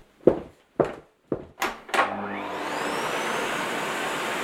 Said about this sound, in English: Actually, dearie, I need you to finish vacuuming for me.